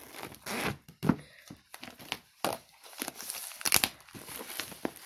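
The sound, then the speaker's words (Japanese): Very tough packaging being torn and crinkled while an iPad is unboxed: a run of sharp ripping and rustling bursts, some loud, broken by short pauses, with no talking. “iPadを開封する”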